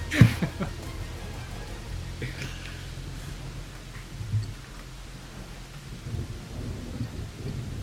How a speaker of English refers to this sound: Is everybody standing out in the rain?